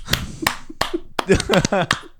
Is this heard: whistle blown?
no